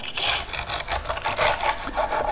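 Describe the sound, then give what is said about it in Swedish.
A knife cuts through porchetta whose crackling skin has turned very crisp, in a steady back-and-forth rasp of scraping, crackling strokes, fairly loud with no talking. “Ljudmässigt skulle man ju kunna tro att du eh, skär upp en, en, en riktigt torr och, fnasig mm.”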